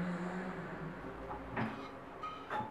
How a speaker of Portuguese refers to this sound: Ô tia, tu pode fechar essa porta pra mim, por favor? Essa aqui, tia, essa aqui.